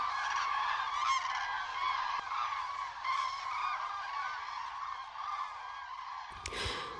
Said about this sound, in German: jetzt kommen ja neue Kraniche hier äh, von der anderen äh, Schlaffläche in, äh, zu den Kranichen hier drüben. Und äh, das ist einfach toll. Hören Sie die Kranichrufe, das ist einfach, äh, ja, da ist Mystik irgendwo dahinter.